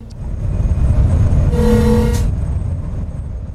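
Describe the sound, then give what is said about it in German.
A large US-flagged cargo ship, bound from Costa Rica to Houston to load cargo, entering the Miraflores locks of the Panama Canal: a heavy, steady low rumble throughout, broken by a single loud, brassy horn blast lasting under a second midway through. “So hört es sich an, als die Ocean Crescent in die Schleusen von Miraflores im Panamakanal einfährt.”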